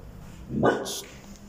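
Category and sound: animal, small dog barking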